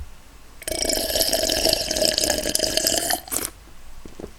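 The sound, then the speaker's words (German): A person imitates an office colleague's loud coffee slurping: one long, noisy, wet sucking sound lasting almost three seconds, hissy and bubbling, ending with a short extra slurp. “Äh, da war aber einer dabei, der hat immer, wenn er Kaffee getrunken hat, hat er geschlürft.”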